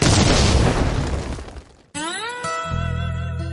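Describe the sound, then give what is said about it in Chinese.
A loud explosion sound effect roars and crackles, then fades over about two seconds. It cuts abruptly to a rising synthetic tone that settles into steady, buzzy musical notes. “下面马上进入到今天的生活大爆炸环节， 瞬间爆炸。”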